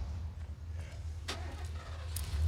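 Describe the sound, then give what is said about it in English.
A car engine rumbles low and steady, with a couple of brief sharp clunks over it, as the car is started up and taken away; no one speaks. “Why are they taking Daddy's car?”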